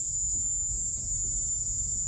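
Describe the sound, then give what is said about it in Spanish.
A cicada-like drone, from a slightly cleaned-up recording of a noise captured by the FBI, in a steady, unbroken high-pitched buzz that holds constant throughout, loud, over a low rumbling background with no voices. “Ese sonido que ustedes acaban de escuchar le suena a, chicharra y es verdad.”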